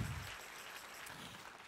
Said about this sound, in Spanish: Si ese es el aplauso, dáselo fuerte al Señor.